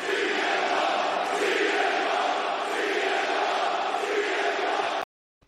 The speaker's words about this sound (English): this crowd was very, very excited to see CM Punk, the best in the world, making his first appearance on Dynamite.